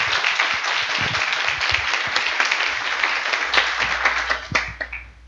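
Steady applause welcoming a guest, a dense crackle of many hands clapping for about five seconds at an even, lively level before tapering slightly at the end.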